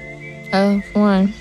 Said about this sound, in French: C'est euh, ça, c'est un sifflement agréable. Quand même.